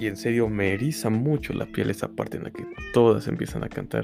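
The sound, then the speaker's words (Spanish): A cat meows repeatedly in drawn-out, rising and falling cries, loud, overlapping a person speaking throughout. “Perdón si se escucha a mi gato maullando, no sé por qué lo está haciendo.”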